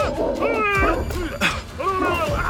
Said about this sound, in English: sees a pack of cartoon dogs with two heads charging the car from all directions.